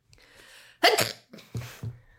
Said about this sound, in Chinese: 等一下，我觉得我可能会打个喷嚏。